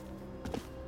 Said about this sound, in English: But then he hears it, like an echo of his own feet, but out of time. It's the sound of other footsteps, and they're not far behind him.